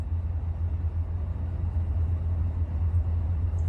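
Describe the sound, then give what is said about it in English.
A car engine rumbles low and steady throughout as the car backs up, a continuous idling drone with no breaks or revving, moderately loud, with no voices. “backing up. Maybe she didn't notice. No, nope, she's getting out of the car.”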